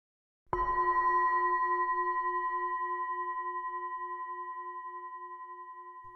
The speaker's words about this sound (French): Pour vous aider, chaque son de gong marquera les transitions de début ou de fin d'exercice.